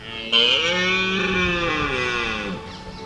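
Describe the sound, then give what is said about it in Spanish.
A red deer (Cervus elaphus) stag bellows once during the rut in the Iberian mountain ranges, a long, loud, hoarse roar with a strong harmonic tone that holds steady for over two seconds before breaking off. “se acortan, coincidiendo con el descenso de las temperaturas y el paso de las borrascas que nos devuelven las ansiadas lluvias, las serranías ibéricas acogen uno de los espectáculos más extraordinarios de la naturaleza europea, la berrea del ciervo.”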